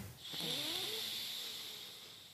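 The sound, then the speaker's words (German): A slow, steady breath drawn in through the left nostril while the thumb closes the right nostril, an airy hiss lasting about two seconds, with a faint whistling nasal tone near the start and no talking. “Wir nehmen den, den Daumen an das rechte Nasenloch und wir atmen mal durch das linke Nasenloch ein.”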